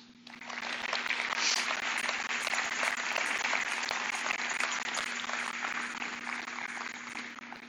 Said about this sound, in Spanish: Dale un aplauso.